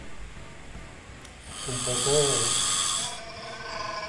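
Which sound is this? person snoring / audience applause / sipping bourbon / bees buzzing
person snoring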